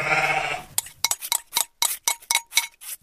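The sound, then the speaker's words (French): A single wavering sheep bleat rings out, then gives way to a quick series of light clinks and taps like a utensil stirring eggs and milk in a salad bowl. “C'est moi qui mélange, dit Mouton.”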